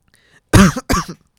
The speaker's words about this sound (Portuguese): Estou com um bocadinho de tosse. É normal.